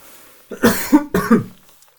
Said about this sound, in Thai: อันนี้ต้องบอกก่อนว่าต้องขออภัยคุณผู้ฟังจริงว่าอาจจะมีการไอบ้างนะครับ เนื่องจากติดโควิดไปก่อนหน้านี้นะฮะก็คือติดไปเมื่อช่วงต้นปีที่ผ่านมาเลยครับ